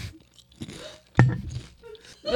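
Crunchy food being chewed, with a few sharp, crackling bites and one loud snap midway, followed by softer munching and mouth noises. No one speaks.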